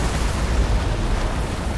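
A massive wave crashes down in a sustained, roaring wash of noise, heavy in the low end with a broad hiss above, steady and loud throughout with no voices.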